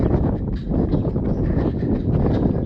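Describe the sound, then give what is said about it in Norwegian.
Steady wind roars across an open plateau with a packed-dirt running track overlooking the Rift Valley, a dense, constant low rumble buffeting the microphone with no pauses and no voices, loud throughout. “Litt listvind utsatt er det selvfølgelig. Det blåser litt.”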